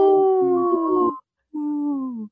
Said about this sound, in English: That's a strong howl.